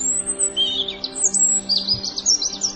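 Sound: european robin singing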